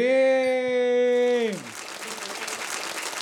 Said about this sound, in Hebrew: תנו כפיים. לרם אוריון המדהים!